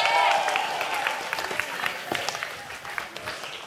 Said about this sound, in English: Can we get a clap for Plant Fergus? Yeah.